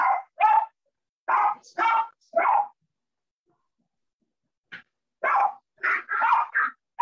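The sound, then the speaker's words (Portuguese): The speaker's own dogs bark in short, repeated bursts, two quick clusters separated by a brief silence, moderately loud, with no talking over them. “Eu acho que, de repente, os meus cães, isto nunca aconteceu mas pronto, assim como a primeira vez.”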